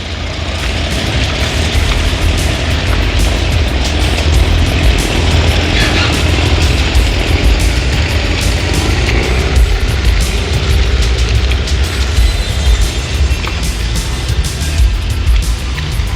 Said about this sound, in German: Der Wal begleitete das Motorboot hinaus aufs Meer.